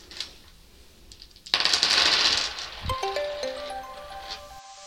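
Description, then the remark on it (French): Several illustrated story dice, rolled as part of a dice game, clatter across a hard tabletop in a dense, rattling burst lasting about a second, then a few lighter knocks and faint ringing as they settle. No one speaks. “est-ce que tu accepterais de jouer au jeu du lancer de dés et de lancer les dés dessinés qui sont devant toi”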